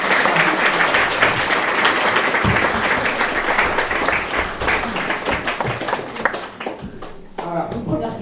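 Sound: audience applause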